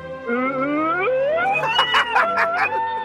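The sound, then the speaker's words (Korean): An impressionist on a radio show imitates an ambulance siren with the voice, a rising wail that climbs steadily and then warbles up and down in quick cycles, fairly loud, with a bit of laughter at the end. “앰뷸런스 소리.”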